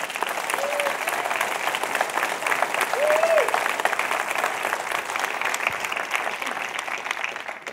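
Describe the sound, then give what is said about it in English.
An audience claps in a sustained, dense round of applause lasting several seconds, steady and fairly loud, with faint cheers or voices rising briefly above the clapping. “And uh, I'd like you to bless them with a round of applause, if you will.”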